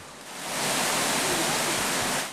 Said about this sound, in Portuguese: Esse barulho que a gente está ouvindo agora, água escorrendo, água ah, descendo, é. ele remete o que para a senhora?